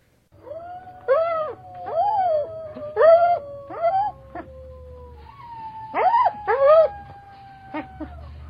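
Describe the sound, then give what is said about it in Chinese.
A wolf cub, sitting and facing northwest, howls in short, wavering, high-pitched cries, about six in two bursts, rising and falling over a faint sustained tone and a low background hum. “他们可能也不明白昨夜听到的千真万确的小狼嚎声为什么不再出现了。”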